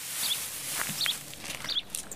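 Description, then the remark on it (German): A few soft, unhurried footsteps crunch on an outdoor garden path as a woman walks and counts her steps, while small birds chirp briefly in the background. “Sie zählt die Schritte neun, und streckt die Hand aus.”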